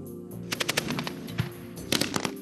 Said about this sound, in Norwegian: Kanonene og bombekasterne drønner mens mitraljøsene smatrer, her helt ytterst mot grensen til Polen. Vår mann i Moskva har fulgt den russiske marineinfanteribrigaden på øvelser.